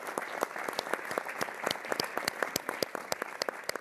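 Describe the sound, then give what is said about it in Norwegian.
Polite, subdued applause from a theatre audience at the end of a play, a steady patter of many hands clapping at moderate volume without cheers or whistles, lasting a few seconds. “Applausen er forsiktig når stykket er over.”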